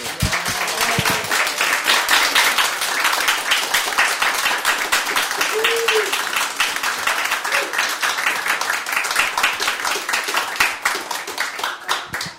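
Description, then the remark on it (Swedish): Sustained applause from a crowd at the close of a programme, dense and steady clapping at a loud, even level for the whole stretch, with a few faint voices and a brief whoop rising through it. “Och en applåd ska hon ha, en ordentlig applåd.”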